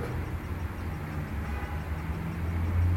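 A train passing, heard as a steady low rumble with faint clattering that holds throughout and grows slightly louder toward the end, with no one speaking.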